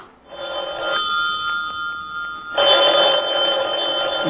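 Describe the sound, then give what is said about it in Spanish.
A telephone rings with a bright, steady electronic trill, holding a sustained high tone that swells louder partway through and continues without pause. No one speaks. “Deben ser ellos. Voy a contestar, hija.”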